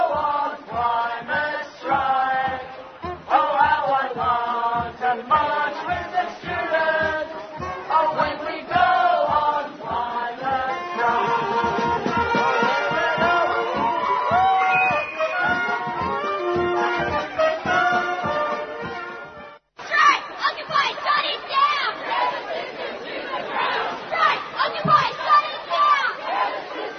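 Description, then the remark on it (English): A large climate change protest crowd, reckoned at about 150,000 people, chants in loud, rhythmic unison, voices rising and falling with steady beats, then breaks briefly before cheering and shouting resume at full volume. “some, of the, the people who were there, lots of people out”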